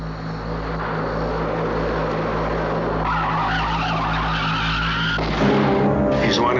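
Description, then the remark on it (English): A loud, steady roar of a car engine and tires screeching in a long skid, ending in a sudden sharp burst like a tire blowing out, with no voices. “Yeah, that's what I heard just before the tire blew out.”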